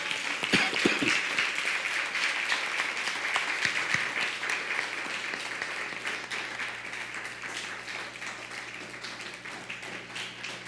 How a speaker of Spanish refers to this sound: amados hermanos, un fuerte aplauso a las naciones.